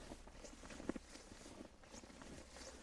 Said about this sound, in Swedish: Att jag kliver på snön här framför mig, det innebär att jag trampar sönder snön. Jag förstör en bild, jag trycker ner någonting.